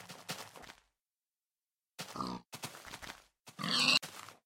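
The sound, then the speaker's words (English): A pig grunts and oinks in several loud, rough bursts, separated by short pauses, with a harsher squealing snort near the end. “Um, could it be that we were loading in these pigs?”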